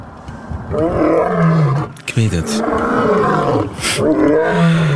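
A real lion roars loudly, deep rumbling bellows rising and falling in several long surges with brief breaths between them, filling the whole stretch.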